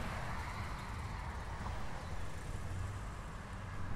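Steady, continuous traffic rumble at a motorway rest stop, a broad low-heavy wash of passing vehicles with no distinct events standing out and no one speaking.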